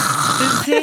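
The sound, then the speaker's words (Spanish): A voice imitates a husband's forceful, noisy allergy nose blow that also clears the throat, running into a rough, voiced throat-clearing rasp, one short burst with no speech around it. “No, aparte es como una forma de sonarse, pero que se suena también la garganta.”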